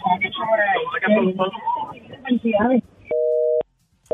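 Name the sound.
telephone busy tone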